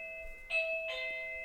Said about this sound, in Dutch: dat is de bel.